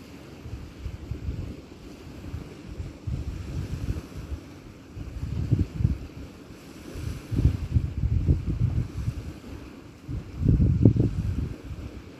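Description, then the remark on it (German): Small sea waves lap gently at the edge of the beach in soft, recurring swells, with a low rumble of wind across the microphone and no voices. “Streicht das Meer am Saum des Strandes entlang, bricht sich in kleinen plätschernden Wellen.”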